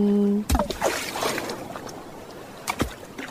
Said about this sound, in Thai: เสียงคลื่นที่หาดทรายแก้ว เข้าเครื่องแปลภาษา เขาคงจะบอกเราว่า มาเที่ยวที่นี่สิ หาดทรายขาวน้ำทะเลใสรอคุณอยู่